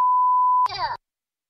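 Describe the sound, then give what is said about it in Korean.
A steady, pure censor bleep covering swearing holds for over half a second, then cuts straight into a short burst of a loud, angry shouting voice before silence: another driver yelling at a taxi driver through the taxi's opened front door. “삐 소리가 난 건 욕설.”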